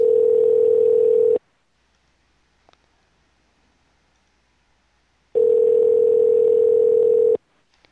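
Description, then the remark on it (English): A steady, loud telephone line tone sounds twice, each lasting over a second, separated by a long silent pause of about four seconds, as a phone call is being dialed. No one speaks. “We're going to dial 619.”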